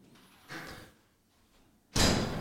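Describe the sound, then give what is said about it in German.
A wardrobe door is pushed shut: a brief sliding rustle, a pause, then a firmer, louder closing thud, with no one talking. “Da, die Tür war auch zu wieder.”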